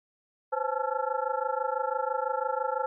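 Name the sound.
telephone ringback tone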